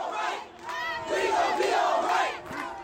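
A large protest crowd in the streets, in solidarity with the Black Lives Matter movement, chants a song in unison outdoors, many voices rising and falling together in a rhythmic, sung refrain that carries steadily over a few seconds.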